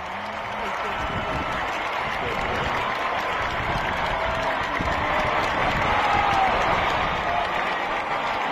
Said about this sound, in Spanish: No, qué bárbaro, se oye bien padre ahí, la gente aplaudiendo.